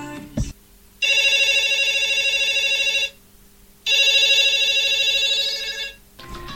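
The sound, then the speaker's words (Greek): A telephone rings twice as a call is placed to a guest, each ring a long, loud electronic trill lasting about two seconds, separated by a short pause. A brief click comes just before the first ring, and no one speaks. “Γι' αυτό ας την πάρουμε αμέσως τηλέφωνο.”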